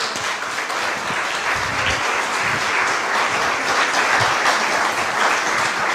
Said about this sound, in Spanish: Y por eso dice, dale un aplauso.